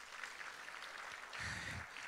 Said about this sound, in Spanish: Eso, denle un aplauso a los de Media, Señor, gracias.